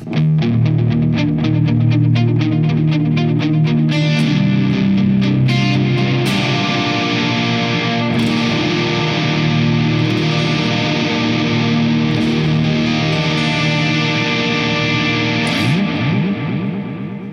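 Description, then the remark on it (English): Overdriven electric guitar played through a dual echo delay, drenched in echo, with rapid picked notes at first giving way to thick, ringing chords that smear together into a loud, sustained wash, with no one talking. “But I like that because the main reason why I dig it is because at a low level, it has an absolutely astonishing drive tone.”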